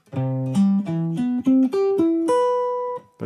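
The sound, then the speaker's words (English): Chord tones played one after another as a broken arpeggio, in the order 1-5-3-7, with clear sustained pitched notes mostly stepping upward and a final higher note held longer. No voices. “Or maybe 1, 5, 3, 7.”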